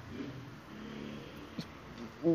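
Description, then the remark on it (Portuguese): A steady, even hiss of rain fills the background throughout, with low muffled voice-like sounds underneath and a short tonal vocal sound at the very end. “Tá chovendo, deve ter ficado um puta chiado de merda no meu podcast, no meu episódio agora.”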